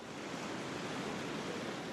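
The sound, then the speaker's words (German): A steady, broad roar of huge ocean waves breaking on the beaches of Sumba at dawn, a dense wash of hissing water that stays even throughout with no distinct individual crashes and no voices. “Im Morgengrauen brannten riesige Wellen an die Strände Sumbas.”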